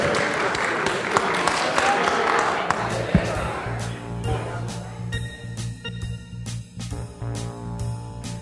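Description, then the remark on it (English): An audience bursts into dense, steady applause for about three seconds at the end of a beer salon session at Savor 2015, then the clapping thins to scattered claps as a sustained musical tone with layered harmonics rises underneath. “So please join me in thanking the guys.”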